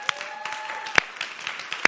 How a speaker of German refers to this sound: Und, ähm, und äh, ja, das ist ein Applaus wert.